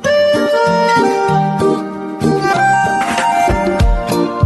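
A bright pop song opens with steady, full instrumentation: sustained melodic tones over a punchy bass line and rhythmic accents, played loud and close with no voices yet.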